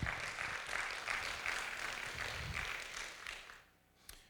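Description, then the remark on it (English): A church audience applauds together during a sermon in a steady, dense wash of clapping that carries on for several seconds, then thins and fades out, leaving a single late clap near the end. “yeah you can give the lord a good round of applause”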